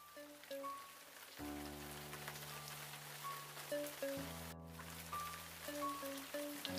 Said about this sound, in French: Une pluie fine se mit à tomber.